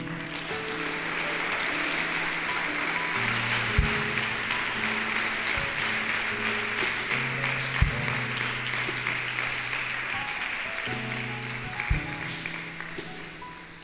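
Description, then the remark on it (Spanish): Sustained applause for the Lord from an audience fills all fourteen seconds, a dense, even wash of clapping over held keyboard chords that shift pitch, with a few low thumps scattered through. “¿Puedes darle un aplauso al Señor?”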